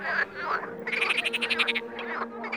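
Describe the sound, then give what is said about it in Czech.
A chorus of frogs croaking at a pond, with rapid pulsing trills overlapping, steady and fairly loud with no voices present. “Takže vidíte, že i ty žáby si dokázaly v tom pekle poradit.”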